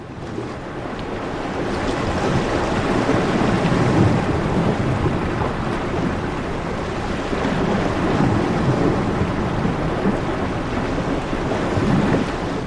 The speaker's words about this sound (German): Wenn man auf Loopat steht, da ist man eigentlich sprachlos, weil beeindruckt von der Landschaft. Und wir hören mal das wilde Meer bei Loopat.